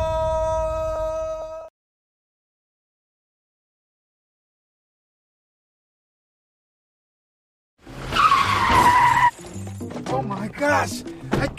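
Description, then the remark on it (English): A loud screech of skidding tires, followed by a burst of clattering crash noise as vehicles, including a truck, collide, all coming abruptly after a long silence that follows a brief sustained tone. “Look, look what you have done to my truck.”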